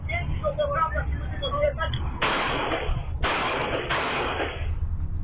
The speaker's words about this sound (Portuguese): Você vai ouvir agora o áudio de parte da discussão e o barulho dos tiros.